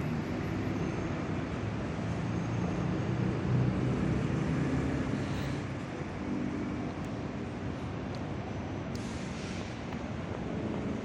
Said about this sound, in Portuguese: Caramba, sexta-feira. Os carros parecem que estão andando até mais rápido. Acho que tá todo mundo com pressa de chegar em casa, aproveitar o finzinho de sexta, o comecinho do final de semana.